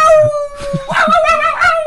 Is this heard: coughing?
no